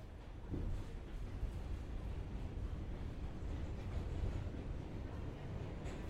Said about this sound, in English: My train came. I gave her a hug and said goodbye, and the train carried me into the night under a starless sky.